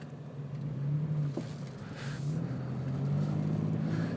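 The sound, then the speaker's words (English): A car engine hums steadily, its pitch rising and falling a little as it accelerates in traffic, with a wash of road and traffic noise around it and no voices. “sorry, somebody pulled out in front of me in traffic again.”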